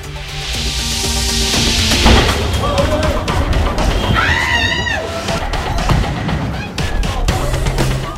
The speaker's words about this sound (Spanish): Grandes explosiones sacudieron el Hotel Hayat en Mogadiscio, seguidas por un tiroteo que ahuyentó a las personas alrededor de la zona.